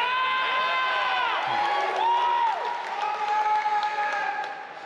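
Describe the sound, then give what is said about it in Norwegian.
A man in the front row of the Bethesda conference yells and whoops with drawn-out, excited cries, loud, over a steady roar of crowd noise and applause for several seconds. “Og det er han godeste hype-beasten på første rad for Bethesda-konferansen. Vi kan jo høre et lite klipp her nå.”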